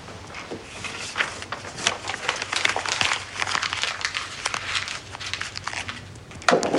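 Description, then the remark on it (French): Paper is crushed and crumpled into a ball, a steady stream of sharp crinkles and crackles lasting several seconds, with no voices. “je prends cette boule de papier dans une main et cette boîte à sable dans l'autre.”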